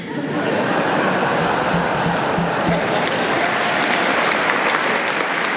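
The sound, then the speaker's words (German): Laughter and long, sustained applause from an audience after a speech fill the whole stretch, a dense steady wash of many hands clapping at an even loudness, with a few faint chuckles mixed into the crowd noise. “Gelächter, lang anhaltender Applaus.”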